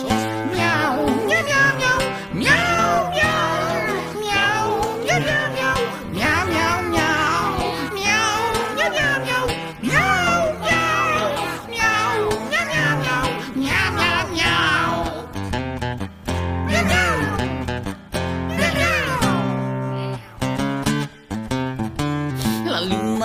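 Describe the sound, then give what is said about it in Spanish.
A voice imitates cat meows in a series of drawn-out, sliding yowls, sung loudly over a dense, continuous musical backing with a rolling purr-like trill between them. “minina messicana, io muoro per tuo amore, miau, brr, miau”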